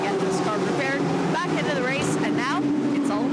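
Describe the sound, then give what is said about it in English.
A Team 19 race car's engine rumbles steadily at idle during a pit stop as the car gets a splash of fuel, a constant low drone sitting beneath a person talking continuously over it. “Uh, but the car will get a little splash of fuel before it then rumbles back out on the racetrack.”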